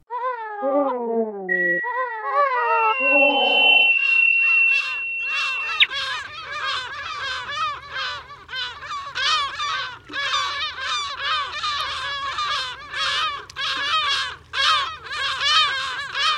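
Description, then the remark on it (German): A dense chorus of many different kinds of birds calling over rooftops in Belfast, harsh overlapping cries and squawks repeating constantly and loudly, with a low city rumble underneath from a few seconds in. “So klingt er, der Vogel der Woche, der doch eigentlich viele verschiedene ist, über den Dächern von Belfast.”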